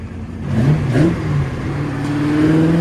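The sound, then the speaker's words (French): A Ford GT40 race car engine revs and roars, its pitch rising and falling through a couple of throttle blips before settling into a steady, loud drone, driven on the Hunaudières straight of the 24 Hours of Le Mans circuit on an ordinary day with public traffic. No voices are heard. “au Mans, il y a quelqu'un qui euh, a une Ford GT40. C'est Michel Pérou. C'est Michel qui est au volant.”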